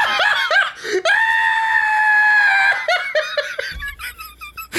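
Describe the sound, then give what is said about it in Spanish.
A person does a loud vocal imitation of a horse neigh: short whinnying bursts, a long sustained high squeal, then more broken trills with laughter mixed in. “Pues mira, si no quieres escuchar ese caballo”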